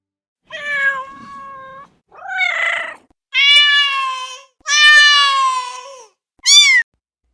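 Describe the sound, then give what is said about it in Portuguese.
A cat meows five times in a row, loud, with drawn-out plaintive cries separated by short pauses and a final quick, higher call. “Caminhando pela estrada, pouco tempo depois, encontraram um gato com os olhos cheios de lágrimas em cima de um muro.”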